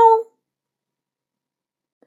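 A single short meow spoken by a human voice imitating a cat, clear and mid-pitched, lasting a fraction of a second, followed by near silence with a faint tiny click at the end.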